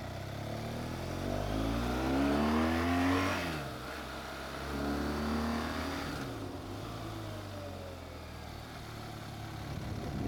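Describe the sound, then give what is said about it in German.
A car drives past on an asphalt road at the El Cintillo recreation area, its engine revving and climbing in pitch as it accelerates, swelling twice before fading into a steady road rumble. No one speaks. “Und schon das erste Auto wieder.”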